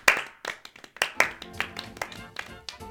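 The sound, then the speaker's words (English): A slow clap sound effect: single sharp hand claps spaced roughly half a second apart, about seven or eight in all, with a faint tonal murmur running underneath. “I'm going to go for a slow clap.”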